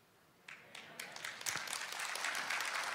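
An audience at a sermon breaks into applause for the preacher that starts after a brief quiet moment and swells into a steady, dense patter of many hands clapping, with no one talking over it.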